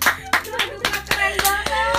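A burst of hand clapping with sharp, evenly spaced claps, about eight in two seconds, loud and steady, over a sustained musical tone and background hum.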